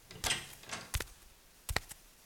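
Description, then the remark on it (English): Several sharp knocks on the front door of a two-story house where a package is being left on the doorstep, about five or six, in two loose groups with a short pause between, fairly quiet, with no voices. “I'll just leave the package at the doorstep, knock a few times, and then leave.”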